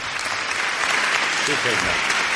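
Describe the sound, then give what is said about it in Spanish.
A live audience claps steadily in a dense, continuous wash of applause, with faint voices briefly rising through the noise. “También los aplausos en directo.”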